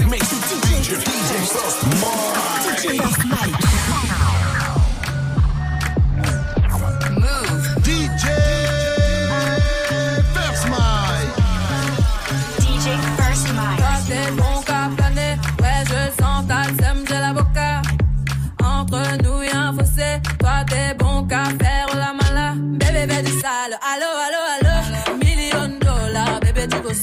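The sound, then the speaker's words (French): A continuous live DJ mix, eight minutes mixed live, plays loud and steady, with a thumping beat, deep bass and layered synths blending without pause, a brief drop near the end before the groove resumes. “Tout de suite, 8 minutes de son mixer en live.”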